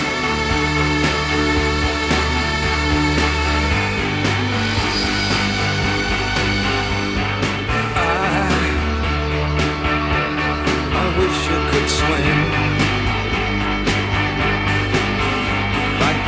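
A rock song plays steadily and loudly, with a thick, droning wall of guitars and keyboards over a driving beat, and no talking over it.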